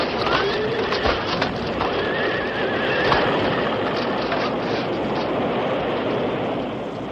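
A loud, steady roar of rushing flood water, a wall of water about 10 feet high, surges with a couple of sharp crashing impacts breaking through the churning noise as it hits and crushes a stagecoach.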